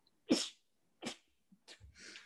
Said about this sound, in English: Right, I'm like, I'm like sneezing and laughing at the same time.